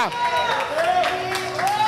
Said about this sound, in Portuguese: Não, aplauda direito aí. Não aplauda qualquer jeito, não.